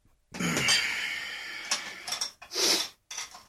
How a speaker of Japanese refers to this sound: 食器を用意してるんですかね用意してるね。